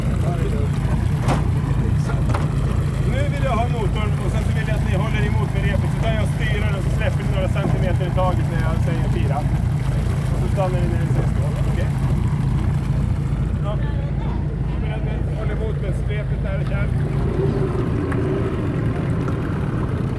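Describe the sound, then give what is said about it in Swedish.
A small outboard motorboat engine drones steadily and loudly for the whole stretch, its low hum constant, while people talk indistinctly over the motor noise; the boat is setting off to scout where to land at Svenska högarna. “Nu ska de sticka iväg här med en liten motorbåt för att reka vart vi ska gå in.”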